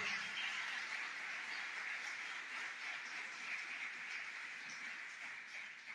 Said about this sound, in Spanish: Denme un aplauso a ese Dios que vino a cambiarnos, por favor.